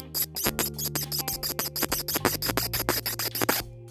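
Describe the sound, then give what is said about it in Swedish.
A rapid series of small, crisp plastic clicks, about twenty in quick succession, as the hands of a Lego Hagrid minifigure are snapped back and forth, with a faint steady hum underneath. “Och hans händer låter lite jobbigt. De låter så här.”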